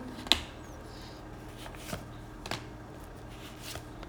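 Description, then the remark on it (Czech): Playing cards being handled and drawn, with a few crisp flicks and snaps spaced irregularly, fairly soft, with no one talking. “Uh, tahám další karty.”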